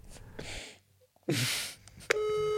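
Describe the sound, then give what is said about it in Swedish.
A couple of breathy exhales, then a steady telephone ringback tone begins near the end and holds, a clear electronic buzz-tone over the line as a phone call is placed. “nu, nu ringer jag Erik här då. Ska du få be om ursäkt? Mm, jag hör signalerna.”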